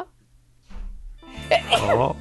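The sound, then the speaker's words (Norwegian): A sharp inhaled breath, then a single loud sneeze with a voiced, explosive burst that fades quickly. “Holder jeg på å nyse?”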